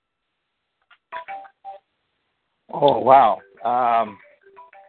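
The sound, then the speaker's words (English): A phone gives off short, faint electronic tones in the background, in brief separated bursts, while a person speaks a few words over them. “I'm sorry if you hear this noise in the background. It's another phone ringing.”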